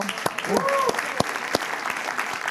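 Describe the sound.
Steady applause from an audience after an interviewee names a favourite Latin artist, a dense wash of clapping that runs the whole time with a few sharper claps standing out, and a brief voice rising over it near the start.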